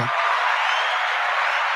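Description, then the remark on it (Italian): A steady wash of audience applause welcoming a guest at a live show, dense and continuous at an even level for the full couple of seconds, with no voices rising above it. “benvenuto, un applauso.”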